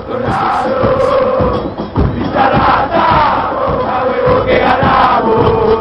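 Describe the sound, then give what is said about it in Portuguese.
A large crowd of football supporters sings a newer, more contemporary version of a stadium chant together, loud and sustained, with massed voices filling the space in a steady, rousing wall of sound. “E a gente vai ouvir agora essa versão que é mais nova, uma, uma música mais contemporânea”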